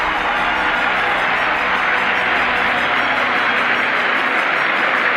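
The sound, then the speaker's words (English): A large crowd at a horse racetrack roars and cheers after a horse breaks the mile and a half record, a loud, continuous wash of noise sustained for several seconds with no individual voices standing out and no speech on top. “No contest. Listen to the crowd. Listen.”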